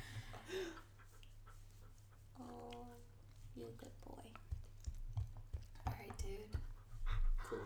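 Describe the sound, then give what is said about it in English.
A dog sitting right up at the microphone pants after playing, in quick, breathy bursts that grow louder toward the end, with soft vocal murmurs and a steady low hum underneath. “Weird sounds when panting in the background.”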